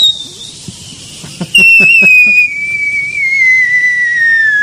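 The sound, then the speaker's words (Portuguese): A cartoon falling whistle: one loud, sustained tone that slides slowly downward in pitch for about three seconds, following a few soft thumps and clicks, with no voices. “esse é de fogos, aquele lá era de rojão. Esse é o, coiote caindo do Papaléguas.”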